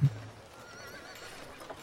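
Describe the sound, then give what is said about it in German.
An old horse whinnies in a single drawn-out, wavering neigh lasting a couple of seconds, fairly quiet, with no talking over it. “Du hast ja gesagt, dass es ein alter Gaul ist.”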